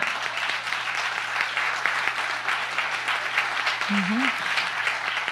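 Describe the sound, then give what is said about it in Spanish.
A church audience applauds the Lord steadily, dense overlapping clapping holding at an even, fairly loud level for about five seconds, with a brief vocal sound rising through it near the end. “No, mejor denle un aplauso al Señor.”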